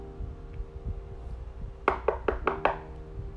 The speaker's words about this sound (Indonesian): Ketukan itu datang lebih cepat dan pangeranmu sudah membuka pintunya.